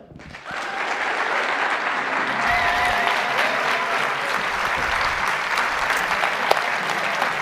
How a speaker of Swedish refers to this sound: Med det sagt så återstår det för mig att eh, till en början varmt välkomna kvällens moderator Fredrik Wikingsson upp på scen. En stor applåd!